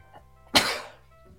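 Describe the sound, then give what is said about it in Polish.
A single short, stifled cough or half-sneeze bursts out, sharp at the onset and trailing off over a moment, with quiet background noise before and after. “uwaga, będę kichał, przepraszam, albo i nie.”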